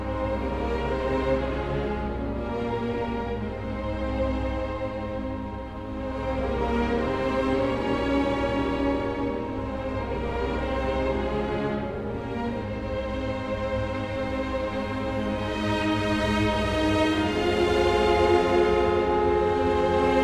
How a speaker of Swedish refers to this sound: Ett av hans allra mest kända verk heter Finlandia Opus 26 och låter så här.